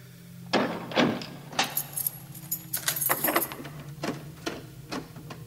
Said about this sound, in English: That, I believe, was the sound of Neil locking St Mary's Church in Odstock.